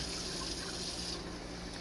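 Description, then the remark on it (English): A steady rush of cold running tap water, fairly loud, as fruit is rinsed under the faucet; the hiss stays even throughout, with no voices. “And then you want to rinse it off”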